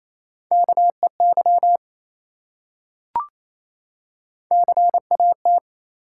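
Rapid Morse code beeps at 28 words per minute, in a steady, mid-pitched tone, spell out a three-letter word with short and long pulses in two quick bursts. A pause and a single soft click separate them. No voices.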